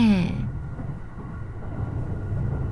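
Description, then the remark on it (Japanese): A train rumbles and sways steadily along the tracks heading south, a low, continuous rattling drone that stays fairly loud throughout, with a brief trailing voice at the very start. “電車はガタゴトと揺れながら南に向かった”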